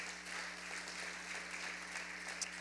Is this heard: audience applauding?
yes